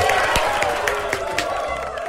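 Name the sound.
applause and cheering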